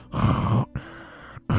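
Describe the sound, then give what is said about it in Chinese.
A voice imitates heavy, mechanical respirator breathing of Anakin Skywalker breathing through the breathing machine of his life-support suit and black helmet in Star Wars: a loud, raspy inhale, then a long hissing exhale, and a third breath starting, with no talking. “最后的这个剧的一个镜头就是说，有一个出来一个人，然后他带着呼吸机那通过呼吸机那种喘气的声音”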